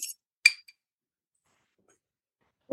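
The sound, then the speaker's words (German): Glasses clink together in a toast, two bright, ringing taps about half a second apart, followed by a quiet pause and a brief low sound at the end. “Ähm, aber ich mache jedenfalls mal und vielleicht habt ihr auch was prepared und würde mal sagen, ich stoße hier mal mit irgendwas an.”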